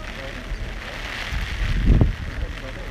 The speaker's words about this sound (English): Uh, most normal people would give up in this weather. This is, uh, you can hear the rain.